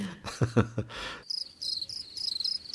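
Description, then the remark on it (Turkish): A cricket chirps steadily in rapid, pulsing trills, clear, following a few brief muffled thumps and rustles at the start. “Evet, cırcır cır böceği sen bir kenara çekilebilirsin artık.”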